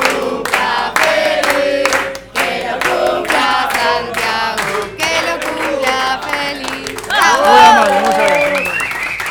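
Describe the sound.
Steady applause from a show audience welcoming the co-host on his birthday, dense clapping mixed with shouting and cheering voices that swell louder toward the end.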